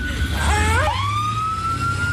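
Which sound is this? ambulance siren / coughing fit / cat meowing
ambulance siren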